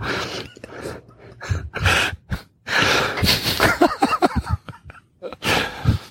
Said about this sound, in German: Ist ja irgendwie so bei, bei, bei Geburtsvorbereitungsseminaren muss man doch auch so atmen, oder?